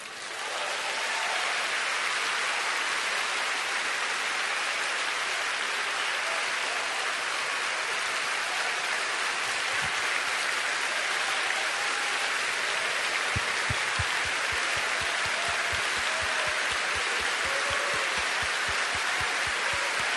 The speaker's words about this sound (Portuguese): É para aplaudir de pé, igreja.